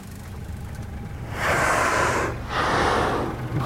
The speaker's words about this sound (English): Wow that sound, the surface, the blow. That sound you can hear, a loud sort of snorting. That's the sound of a blue whale exhaling through its two giant blowholes